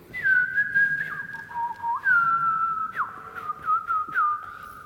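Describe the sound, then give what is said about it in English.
A person whistles a meandering, fluting phrase, sliding between held notes and quick dips in imitation of a blackbird's song, clear and close with no talking. “That's very bad imitation of a blackbird song.”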